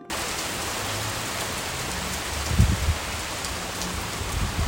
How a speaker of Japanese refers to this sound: まず27日日曜日の午後雷雨が降りました雷とともに秋がやってきましたまずその音源をお聴きください